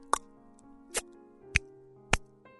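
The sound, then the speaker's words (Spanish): Four crisp kiss smacks made right into the microphone, spaced unevenly about half a second apart, with no talking in between. “Entonces ya sé mandar besos gracias a mis maestros que son ustedes.”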